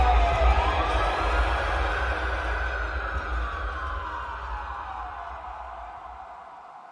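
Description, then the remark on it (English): A wailing siren rises and falls over a low rumble, sounding far off and gradually fading away. No one speaks. “I curled up and lay still as my dad screamed and sirens wailed in the distance.”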